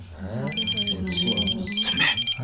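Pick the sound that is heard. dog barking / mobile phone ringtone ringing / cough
mobile phone ringtone ringing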